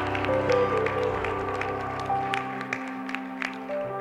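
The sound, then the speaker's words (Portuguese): A church audience applauds the name of Jesus in scattered, uneven bursts over sustained, humming keyboard chords that fade in the low end toward the end. “Então aplauda mais uma vez o nome dele.”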